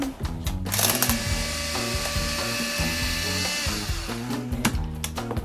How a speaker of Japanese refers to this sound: はい、卵3個を泡立て器でうん泡立て器でちょっとうるさいですよ失礼